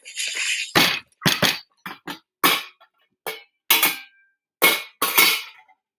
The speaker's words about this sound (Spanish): No, man, sonó como, un pinche. Con razón se cayó. Su motor sonó a vajilla. Pinche capitán Eric, mamón, le echó agua a la turbocina.